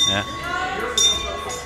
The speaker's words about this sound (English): And if you can hear the bell, yeah, the bell. That's the bell uh, tolling for, for the whom uh, the bell tolls.